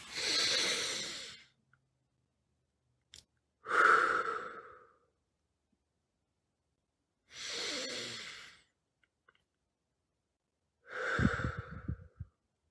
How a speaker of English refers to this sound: deep belly breathing, rhythmic breathing, breathing. Feel the breathing go into your belly, into your diaphragm.